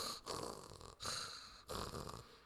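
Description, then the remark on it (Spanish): A voice imitates a person's wet, gurgling, arrhythmic, liquid-sounding breathing: three rattling, noisy breaths in quick, uneven succession, fairly loud, with no other talking. “Eh, yo te vi ahí del otro lado, literal lo único que sabía que por lo que estaba viva era porque respirabas, pero era una respiración arrítmica. Se sentía como los líquidos, se, escuchaba como”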